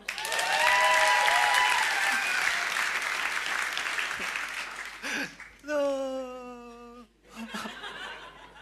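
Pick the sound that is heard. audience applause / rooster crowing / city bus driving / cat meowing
audience applause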